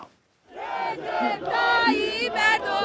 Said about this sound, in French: Drapeau turc à la main ou bannière à l'effigie du président, ils sont des milliers à se masser sous les feux d'artifice et à danser dans une ambiance de fête populaire pour célébrer la réélection de leur héros Recep Tayyip Erdogan.